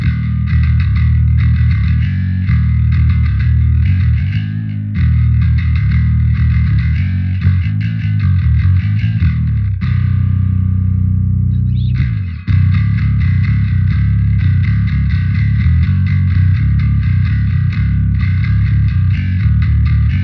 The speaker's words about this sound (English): this is my live bass tone